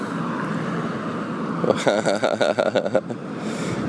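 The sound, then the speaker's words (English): A steady wash of road noise from busy morning commuter cars going by as people head to work, with a louder, warbling burst rising in the middle for a second or so before the constant rush settles back. “It's like a bunch of cars. This is everybody getting into work.”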